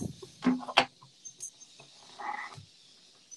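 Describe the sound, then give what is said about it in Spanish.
Loud birds chirping outside the windows, with sharp bursts of calls coming in irregular clusters over a steady, hissy outdoor background. No one is speaking. “Están bien intensas los pájaros.”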